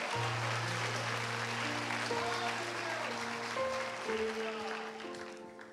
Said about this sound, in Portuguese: Você que acredita, aplauda Jesus.